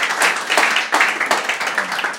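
A church audience applauds to welcome a visiting missionary who will bring the message, with dense, steady clapping that fills the whole stretch, bright and fairly loud, with a few surges in intensity and no one speaking over it.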